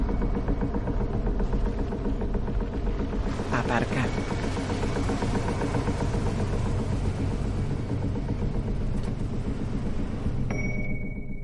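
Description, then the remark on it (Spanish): A car drives steadily through a town, passing a pickup truck and a butcher's shop, its engine giving a continuous low rumble that stays fairly loud throughout, with a brief higher tone sounding near the end. “Luz circula por el pueblo. Pasa junto a la camioneta de Ed y observa la carnicería.”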